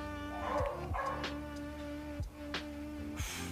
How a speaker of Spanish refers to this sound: Perdonen a los perros, es que también están comentando.